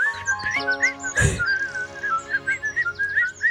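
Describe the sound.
Bright, chirpy whistling by a man walking down the street with a briefcase runs through the whole clip in quick, repeated tweeting bursts, like a bird call, over sustained jaunty musical tones, with a single soft thump about a third of the way in.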